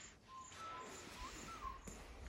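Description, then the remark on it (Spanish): A few faint, short bird chirps and whistled notes played from a cassette, scattered over a steady background hiss with no one speaking. “Son pájaros, ese sonido del cassette.”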